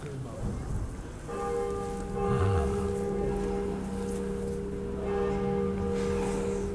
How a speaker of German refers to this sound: Oh, wir, haben, wir haben die Glocke. Von der einen Kirche. Und jetzt bitte die andere.